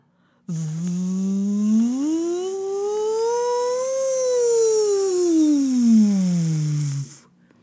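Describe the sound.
Voices imitate an airplane during a 'Seu rei mandou' (Simon says) game, with a long, steady buzzing drone that climbs slowly in pitch, peaks midway, then glides back down over about six and a half seconds before stopping abruptly.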